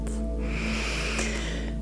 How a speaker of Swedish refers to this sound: Och vi andas in ordentligt.